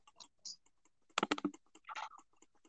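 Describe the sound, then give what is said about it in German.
Soft, rapid computer mouse clicks tick irregularly next to a microphone, with a louder burst of clustered clicks in the middle and a brief rustling sound near the end. “Okay, ich klicke gerade neben meinem Mikrofon mit der Maus.”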